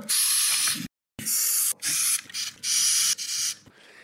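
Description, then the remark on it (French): A Madagascar hissing cockroach hisses in a series of loud, breathy bursts, five or six forceful exhalations separated by brief pauses, with no voices. “apparemment, elles émettent des sons, elles sifflent. Elles ont deux types de sifflements.”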